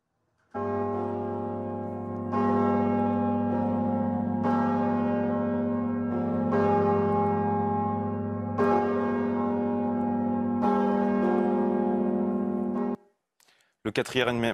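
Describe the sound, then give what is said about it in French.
The two huge, deep bourdon bells of the south tower of Notre-Dame de Paris, rung by hand together for Easter, their heavy strikes falling every couple of seconds and blending into a loud, droning hum before cutting off abruptly, followed by brief talking. “Les deux bourdons de la tour sud de Notre-Dame de Paris ont pour la première fois sonné à l'unisson pour la fête de Pâques”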